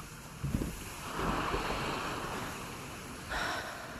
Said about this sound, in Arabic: وقفت لوريت على الكورنيش قبال صخرة الروش ببيروت تأملت البحر من الحفة العالية شافت الموج عم يضرب بالصخر